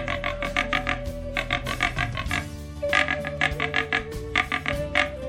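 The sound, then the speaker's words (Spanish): Peccaries grunt in a rapid, rhythmic series of rough, croaking bursts, fairly loud, over a steady humming tonal background that runs throughout. “Se fue hacia las montañas con su hijo y una vez que llegó, se puso a imitar el sonido de los pecaríes.”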